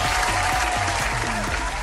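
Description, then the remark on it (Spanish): Steady applause from a group for Madison, winner of the challenge, a dense continuous patter of many hands clapping at an even loudness throughout, with no distinct voices standing out. “Un aplausito para Madison.”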